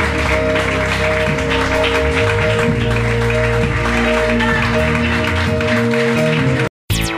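An audience applauds the name of the Lord, steadily and loudly over sustained, droning music, the clapping forming a dense wash of sound before a brief cut of silence near the end.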